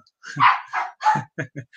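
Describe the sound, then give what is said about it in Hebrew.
A pet dog barks about five times in an irregular series in the background, the first barks longer and louder, the last ones short and clipped, with no talking over them. “הכלב שלי ברקע.”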